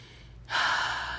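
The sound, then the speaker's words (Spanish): A single slow, deep breath drawn in, a soft airy rush that swells and holds steady, with no talking. “Si te empieza a perseguir un león, ¿cómo va a ser tu respiración? Obviamente no va a ser como...”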